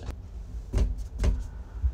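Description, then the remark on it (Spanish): A hand taps on a bathroom door, a few dull knocks spaced about half a second apart, with two louder hits standing out over a quiet background. “Esta es la puerta del baño, la voy a tocar.”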